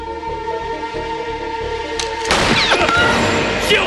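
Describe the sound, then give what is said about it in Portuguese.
Tense orchestral music plays in a film scene, then a sudden loud gunshot, a woman being shot in the thigh, bursts in, followed by a lingering noisy clatter and a few sharp, harsh impacts. “Deu um tiro na coxa da mulher, velho.”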